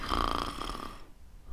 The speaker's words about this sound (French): Il y a des gens, tu sais, qui vont ronfler. Mais là, euh, j'aurais jamais deviné en la voyant.